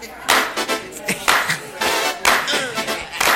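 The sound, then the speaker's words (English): An audience claps on the one in a steady, loud rhythm along with live music with horns, dense bursts of many hands striking together on each beat. “Everybody else just clap.”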